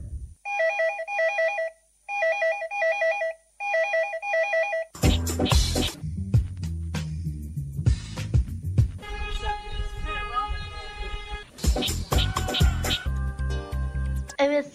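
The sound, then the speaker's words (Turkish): A telephone rings three times in short, evenly spaced, clear electronic bursts before loud clattering noise and voices, with something like a cat's meow, take over. “Ve eğer şu anda bizi dinleyen varsa lütfen telefonu üç kere çaldırsın.”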